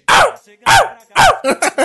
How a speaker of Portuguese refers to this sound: Do nada assim, escutou o cachorro.